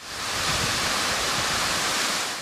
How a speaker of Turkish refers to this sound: Yıldız Şelalesi de soğuğun etkisiyle kısmen buz tuttu. Buz sarkıklarıyla kaplanan şelalede kartpostallık görüntüler ortaya çıktı.